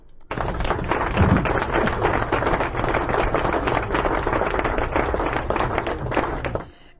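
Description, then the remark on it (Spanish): Sustained applause from a studio audience after a joke, a dense crackle of many hands clapping at an even loudness for about six seconds before stopping abruptly. “Aplausos, por favor.”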